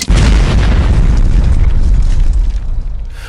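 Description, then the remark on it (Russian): A loud explosion destroys a laboratory in Stockholm, Sweden, in 1864 during experiments with nitroglycerin. It erupts with a sharp onset and a deep rumbling roar that sustains, then slowly thins out and fades over a few seconds. No voices. “Взрыв сметает с лица Земли стокгольмскую лабораторию Альфреда Нобеля”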